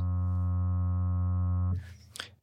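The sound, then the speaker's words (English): A phone rings with an incoming call from a private number, a steady, loud electronic buzzing tone that holds for under two seconds, then cuts off abruptly, followed by a brief rustle and handling noise. “Moments later, my phone lights up with a private number.”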